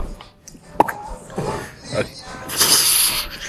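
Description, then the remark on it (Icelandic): A voice imitates a champagne cork popping: a single sharp mouth pop, followed by breathy hissing that mimics fizz. The sounds are close and fairly loud, with no real bottle involved. “opnum kampaðisflöskuna.”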